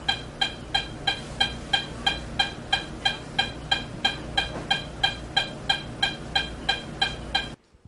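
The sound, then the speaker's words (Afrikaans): A rapid, perfectly regular heartbeat of a child with supraventricular tachycardia (SVT) races at roughly two and a half beats per second, each beat a sharp, bright pulse, continuing steadily for about seven seconds before stopping abruptly. “ons luister net vinnig hoe klink dit as 'n kind met supraventrikulêre tachikardie of oftewel SVT se hart vinnig klop.”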